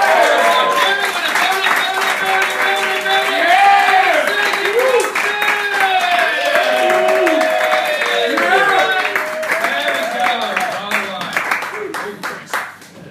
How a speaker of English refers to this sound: All right, guys, we've got one more we're going to make him feel incredibly welcome. So we're going to start clapping.